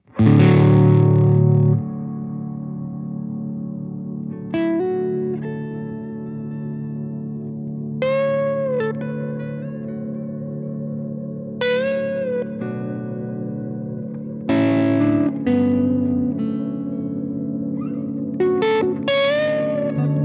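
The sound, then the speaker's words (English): A sustained, distorted guitar drone thick with effects and chorus, with bending, shimmering high tones layering over it as it slowly builds. No one speaks. “this is a little drone. I call it drone.”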